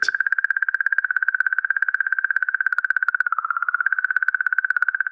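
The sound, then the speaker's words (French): A sonified recording of magnetic field oscillations at the surface of comet Churyumov-Gerasimenko, recorded by the Philae lander at 40 to 50 millihertz and amplified by researchers: a steady, buzzy mid-pitched tone with a rapid fluttering pulse, holding almost constant with a slight dip near the middle, and no voices. “Philae a enregistré cette musique produite par la comète.”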